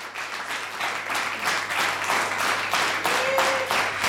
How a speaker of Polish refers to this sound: Wielkie brawa.